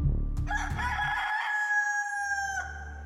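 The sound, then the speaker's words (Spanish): A rooster crows once, loud, a long strained cock-a-doodle-doo lasting about two seconds over a low background rumble, with no one speaking, at a ranch in Tijuana known for breeding fighting roosters. “La gallera se ubicaba en Tijuana y era conocida por haber sido un criadero de gallos de pelea”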